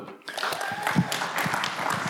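An audience breaks into steady applause after a brief quiet moment, a dense wash of many hands clapping at an even loudness, with a few voices mixed in underneath.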